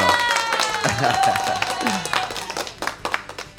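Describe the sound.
Scattered applause and light clapping from a small group in a studio, lasting a few seconds and mixed with voices and laughter in the background.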